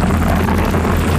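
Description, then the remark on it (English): A motorcyclist's denim jeans shredding against the road in a low-speed motorcycle crash: a loud, continuous rough grinding scrape with an engine-like low rumble underneath, steady throughout and with no voices. “This is the sound of a motorcyclist's jeans being shredded to pieces in a low speed crash.”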